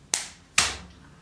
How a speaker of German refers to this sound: Sollen wir mal klatschen? Hast du einen Plop gemacht oder sollen wir klatschen? Wir klatschen heute mal.